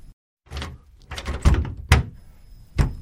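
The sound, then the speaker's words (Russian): A door locked from the outside is tried several times, giving a series of dull thunks and rattles as the handle is pulled and the door knocks against its frame, fairly loud, with no voices. “Но дверь почему-то не открывалась, как будто была заперта снаружи.”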